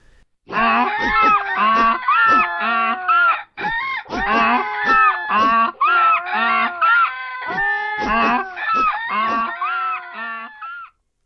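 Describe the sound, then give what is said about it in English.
A loud, clamorous chorus of animals braying, crowing and honking all at once, led by a donkey as the animals sing together in a concert at a window, running almost continuously for about ten seconds with a few short breaks, with no talking. “They stand by the window as they did when they frightened the robbers, and as the donkey nods his head, all together they begin.”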